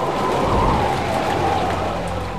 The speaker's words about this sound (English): When hurricane winds are gusting?